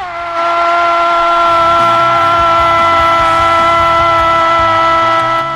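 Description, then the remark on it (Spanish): A recording of sportscaster Andrés Cantor's drawn-out goal shout, one loud sustained vocal note held steadily for about five seconds at a high, strained pitch, with a rumbling background underneath. “Cuando salga ese gol, ese se llama el golazo que paga”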